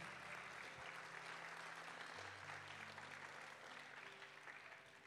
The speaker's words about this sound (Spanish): Alguien le da un aplauso fuerte al Señor.